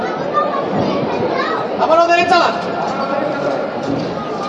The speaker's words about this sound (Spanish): Son los sonidos desde el interior de la iglesia de Cristo Rey.